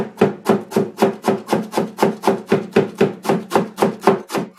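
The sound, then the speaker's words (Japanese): A knife chops vegetables for a salad on a cutting board in a fast, steady rhythm, about three or four crisp thuds each second, continuing evenly with no talking. “サラダを作ってます”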